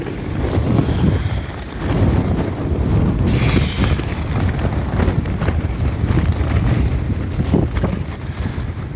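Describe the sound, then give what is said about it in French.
Steady wind blows across open desert ground at night, a loud, continuous rumbling roar with gusty surges and a brief hissing burst partway through. No voices are heard. “la première nuit, elle est assez particulière parce qu'on pendant, la nuit, j'entends un peu le, vent passer, j'imagine l'espace autour de moi, le désert qui se trouve tout autour de moi.”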